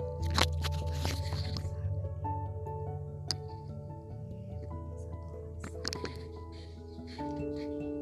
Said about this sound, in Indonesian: Sorry ya guys, di belakang ada suara backsound tukang nasi goreng yang lewat.